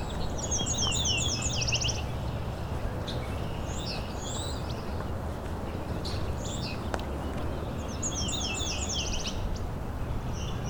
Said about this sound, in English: northern Parula. It's right in front of you. that uh, rapid trill ending in a zeet.